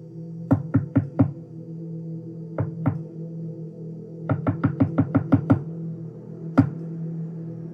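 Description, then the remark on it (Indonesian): Sharp knocking on a closed bedroom window, as if by someone outside, comes in uneven bursts: four quick raps, a pause, two more, then a rapid flurry of about eight, and one last knock, over a low steady hum. “Namun anehnya, suara ketukan tersebut terdengar sangat cepat dengan tempo yang sangat tidak beraturan.”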